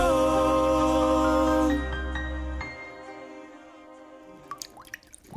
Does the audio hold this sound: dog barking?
no